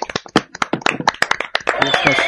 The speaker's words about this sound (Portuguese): Inclusive, vou, eu vou pedir a todos uma salva de palmas para nós mesmos. viu? Não. Eu tô me aplaudindo.